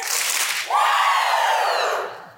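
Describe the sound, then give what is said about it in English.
An audience gives a quick burst of two claps, then lets out a loud, sustained group Ric Flair-style "woooo" shout that holds a high pitch and slowly drifts downward before fading. “Real quick, let me get two claps in a Ric Flair.”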